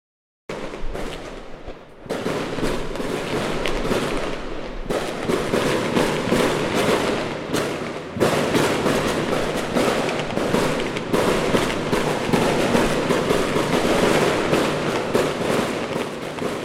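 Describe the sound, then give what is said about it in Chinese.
Distant New Year's Eve fireworks crackle and boom in a dense, continuous barrage, with sharp bursts layered over a steady rumble for the whole stretch. No voices, cheering or music, just the steady loud display. “從跨年想起了那一夜煙火的聲音”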